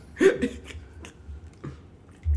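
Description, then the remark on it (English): Chewing and swallowing of a chicken sandwich, with a few moist smacks and clicks from the mouth over a low background rumble, fairly loud. “First, really was swallowing that food. Really fucking that chicken sandwich up first.”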